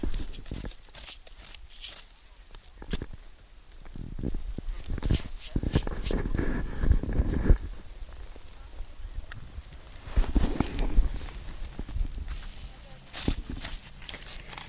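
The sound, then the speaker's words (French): A reindeer herd encircling the recordist scrapes at snow with their antlers, one reindeer about a metre away: repeated irregular crunching and scratching strokes, with hoof shuffles and a voice speaking softly at times. “Et si vous tendez un peu l'oreille, vous entendez même leur bois qui gratte la neige.”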